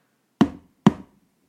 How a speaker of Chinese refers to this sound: 小泥巴说完。在大象的模具上面敲了两下。